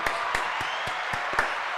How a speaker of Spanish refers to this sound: Dame un aplauso ahí.